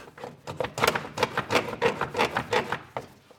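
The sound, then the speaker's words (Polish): Repeated scraping and rubbing of a rigid plastic car radiator fan shroud, covering the viscous fan and the auxiliary air-conditioning fan, being pushed and worked into place, in uneven rhythmic bursts over a few seconds, with no one talking. “W tej chwili będę montował osłonę wentylatorów.”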